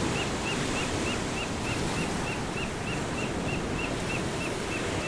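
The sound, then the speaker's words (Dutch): Steady roaring sea surf with waves breaking continuously, mixed with gusting wind noise across the microphone; a faint repeated chirping sits high above the wash. No voices are present. “De zee. Oh, de zee. Mijn borstkas stroomt vol met vreugde. Het woeste deinen. Het wilde kletteren. En de wind.”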